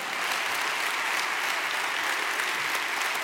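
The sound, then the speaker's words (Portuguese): Steady, dense applause from a large audience, many hands clapping at once in a continuous wash of sound that holds at an even, fairly loud level throughout. “Dá um aplauso daquele derrubar.”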